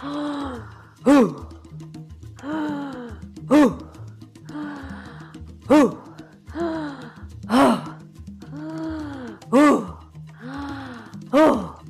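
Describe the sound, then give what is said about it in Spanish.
A person does an 'earth breathing' exercise, breathing in through the mouth and pushing out forceful, voiced exhales, about six steady cycles roughly two seconds apart, loud over a low, rhythmic drumbeat. “Mueve las caderas hacia adelante y hacia atrás y empieza a hacer la respiración de la tierra. Inhalas por la boca y exhalas fuerte.”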